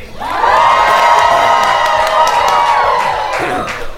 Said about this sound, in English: Welcome to this special live edition of the Sinica Podcast, coming to you from the Definitive China Happy Hour at the 18th Street Lounge here in Washington, D.C. Let's cheer you folks. Make a little noise.